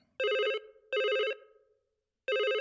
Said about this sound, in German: Da klingelt plötzlich das Telefon.